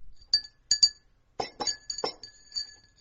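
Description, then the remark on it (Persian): Tea cups clink against each other in a room at home in several light, ringing taps, some doubled in quick succession, with short pauses between. The sound is fairly clear, with no voices. “صدای فنجونای چای و از اتاق میشنیدم”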